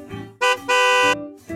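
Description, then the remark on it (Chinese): The lead truck of a rescue team of construction vehicles honks its horn twice to call all the vehicles back after the rescue ends, a short blast followed by a longer sustained one, loud and brassy over a low steady hum. “卡车队长响起喇叭”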